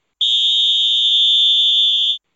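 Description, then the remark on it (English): A single loud, sustained electronic buzzer marks the end of a game, sounding for about two seconds, a steady high tone that starts and stops abruptly, heard alone with no voices. “that's the end of the game.”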